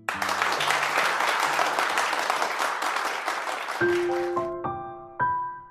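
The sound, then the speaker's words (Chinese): A dense burst of crowd applause lasting about four seconds, then a short, bright musical jingle of stepped tones that ends the effect. No voices. “说的太好了，配段掌声给你啊！”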